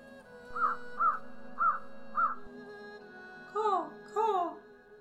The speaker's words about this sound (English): There appears to be a crack in the wall just behind the figure's head, from which you can hear a faint sound of cawing.